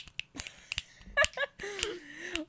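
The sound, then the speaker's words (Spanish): Several sharp finger snaps at an irregular pace, crisp and bright clicks, with voices and some tonal murmuring in between. “Los chasquidos de este capítulo.”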